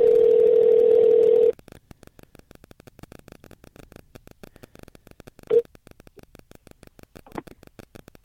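signal or alarm, telephone dial tone

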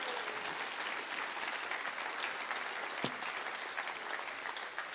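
crowd, audience clapping hands

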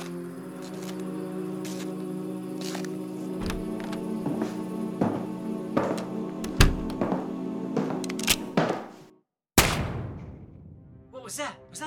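impact, gunshot

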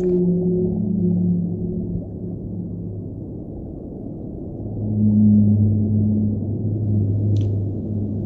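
animal, whale vocalizations underwater

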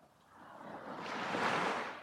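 nature, ocean waves

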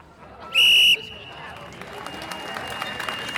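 signal or alarm, referee's final whistle blown

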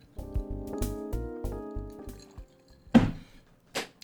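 food or drink, sipping water

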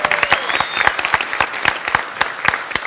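crowd, audience applause

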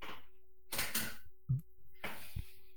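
household object, chair being adjusted

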